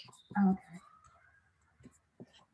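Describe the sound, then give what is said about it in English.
Quiet scratching of a pen moving across paper in a few short strokes as someone writes something down, with a louder brief rustle near the start and soft background noise. “I'm writing it down like an adult.”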